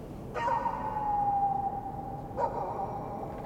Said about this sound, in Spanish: Un silencio nocturno cubre el ambiente. Puede escucharse el lamento de un perro desvaneciéndose.